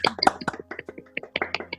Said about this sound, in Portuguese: Salva de palmas para nossa convidada. Salva de palmas.